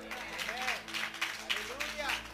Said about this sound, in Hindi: भाई तालियां मार दो इसी बात पे